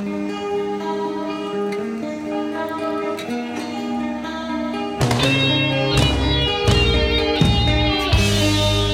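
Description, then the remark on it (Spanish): A gentle, clean acoustic guitar intro plays sustained chords for several seconds, then a louder, fuller band with heavy drums crashes in, building toward a heavy metal song. No one speaks. “Intro acústica.”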